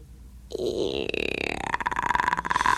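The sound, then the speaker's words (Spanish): A voice imitates a creaking door opening: a strained, croaky groan that starts after a brief silence, then breaks into rapid rattling pulses as the pitch rises, fairly loud. “Se oye la puerta que se abre y rechina.”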